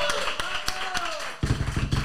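An audience applauds, starting with scattered sharp claps that thicken into a louder, denser burst of clapping in the second half, with a faint voice-like tone at the start.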